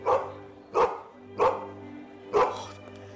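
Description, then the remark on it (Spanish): A dog, Nana, the faithful nanny dog from Peter Pan, barks four times in a steady, evenly spaced rhythm, each bark sharp, over a faint steady low hum in the background. “¿Pero qué hace aquí esta perra?”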